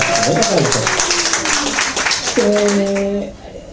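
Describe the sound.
A crowd claps steadily for a few seconds, a dense, loud patter of many hands with some voices calling out over it, fading slightly at the end.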